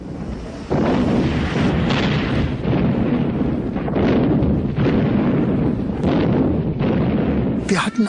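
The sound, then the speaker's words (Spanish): Aerial bombing of Tel Aviv by the Egyptian air force: a continuous heavy rumble of explosions and blasts, with sharper bursts cracking through every second or so, loud and dense from start to finish. “Esa misma noche la aviación egipcia bombardeó Tel Aviv”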